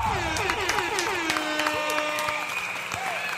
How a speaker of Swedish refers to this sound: Eh, som vanligt då också, vi välkomnar er som lyssnar och vi ger en varm applåd och en tuta också. Inte bara till oss själva, utan till vår nya sommarspecial Nyhetstorksbonanza. En applåd och lite tuta på det hörni!